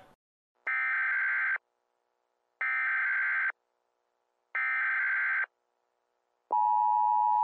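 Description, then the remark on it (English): Emergency broadcast test signal: three harsh, buzzy electronic bursts evenly spaced about a second apart, then a loud, steady alert tone starts up. Clear, with no voices. “This is a test of the emergency podcasting system.”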